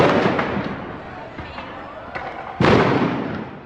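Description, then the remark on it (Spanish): A sharp, loud stun grenade blast at a street demonstration bursts out partway through, its roar slowly fading, over a constant din of shouting crowd noise and smaller popping bangs earlier on. “Se escuchó una bomba aturdidora cerca al sitio, luego un helicóptero sobrevoló la manifestación y con la entrada del SMAT rápidamente la zona fue cubierta por una nube de gas.”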